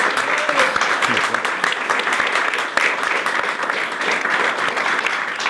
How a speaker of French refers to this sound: C'est Greg Tabibian, on peut l'applaudir bien fort.